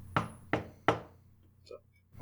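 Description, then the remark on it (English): Three firm, evenly spaced knocks on a door, resonant, each ringing out briefly, followed by short faint vocal sounds near the end. “They're good to go and then there is um, a knock on your guys' door.”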